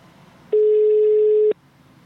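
A telephone dial tone before an incoming call: one steady, mid-pitched electronic hum lasting about a second, loud and even, starting and stopping abruptly against a faint background hiss.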